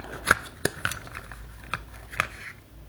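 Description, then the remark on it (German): A small seed bomb package of wildflower seeds in soil and clay being opened: a handful of sharp, crisp clicks and crinkles of paper or cardboard, spaced irregularly over a few seconds with quiet between them and no talking. “Muss mal aufmachen.”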